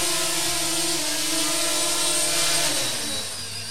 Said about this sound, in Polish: Y, y, to jest, są ciekawe, bo ten dron jest wyposażony w takie czujniki, że jakbym chciał dotknąć, to poleci do góry, ale, ale już lądujemy.